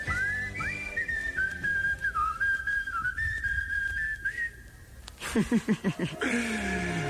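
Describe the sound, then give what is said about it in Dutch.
Someone whistles a steady, sliding melody for several seconds over a low musical backing, then the whistle stops and a few short, rhythmic vocal bursts like a chuckle follow. “Na, Oh, fluit.”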